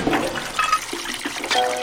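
Water gushes out of a large water vat in a garden, broken by striking it with a stone, in a steady, splashing rush that swells and churns for about two seconds, loud and with no voices.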